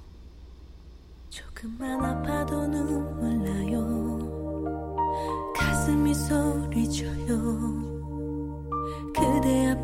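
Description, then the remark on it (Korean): A slow pop ballad sung by a woman, her voice carrying over sustained chords and a deep bass line that swell in after a quiet opening and hold steady and full. “음악 하나 더 들어요.”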